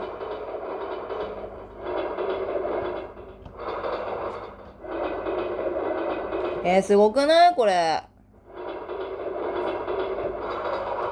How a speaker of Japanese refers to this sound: いろんな高さで電車が通り過ぎる。えー、これめちゃくちゃ楽しい。これバンドで使いたい、これ。